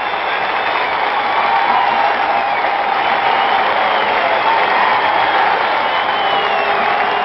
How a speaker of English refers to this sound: gets a standing ovation at the new Madison Square Garden. This is a 38 sellout crowd, and they have been reacting to their Knickerbockers the same way all season long.